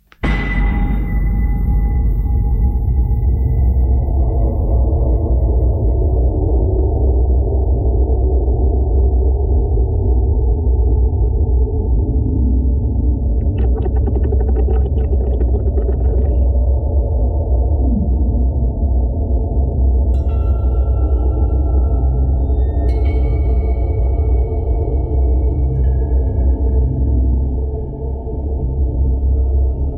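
A video game music track plays alone: a dense, dark, rumbling low drone holds steady and loud throughout, with brief high shimmering tones surfacing midway and again later.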